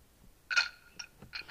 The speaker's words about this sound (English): Shuffleboard. They got a shuffleboard sound effect. They got many shuffleboard sound effects.